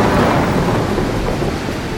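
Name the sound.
thunder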